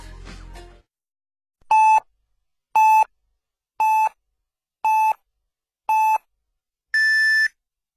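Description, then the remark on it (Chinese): An hourly radio time signal marking 23:00 Beijing time on a Chinese radio station: five short, evenly spaced beeps about a second apart, then a final longer beep at a higher pitch. The tones are clear and loud, with no talking over them. “北京时间二十三点整。”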